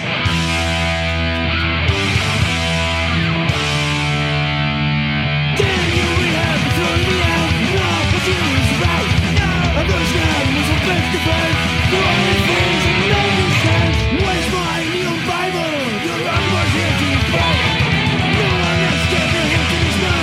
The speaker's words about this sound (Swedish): Eh, men jag tänkte att vi skulle ta och spela en låt.